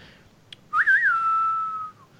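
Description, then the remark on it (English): A single person whistles a short western-style tune: a quick warbling rise and dip, then one long sustained note that holds for about a second before trailing off. “I just have to do mm-hmm. that because it's uh, it's like a western.”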